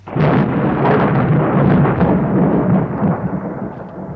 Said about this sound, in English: Three French ships cut their cables as everyone expected that explosion, which eventually came at 10 o'clock at, at night and must have been an astonishing sight lighting up the night sky.